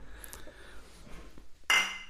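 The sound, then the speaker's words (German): Faint handling noises and shuffling as someone finishes a drink, then a single sharp clink of glasses in a toast near the end that rings briefly before fading. No one speaks. “Ich mach jetzt noch das leer zum Wohl.”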